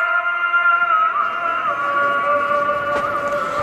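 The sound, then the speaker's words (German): A call to prayer rings out in an old medina, one amplified voice holding long, wavering melodic notes that drift slowly in pitch, carrying steadily across the whole city over a low wash of street noise. “Aha, so werden die Leute zum Beten aufgerufen. Das hört man in der ganzen Stadt.”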